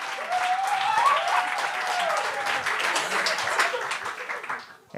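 A sold-out Gong Show comedy crowd breaks into sustained applause for itself, a dense wash of many hands clapping steadily at high volume, with a few whoops rising above it before it tapers off at the end.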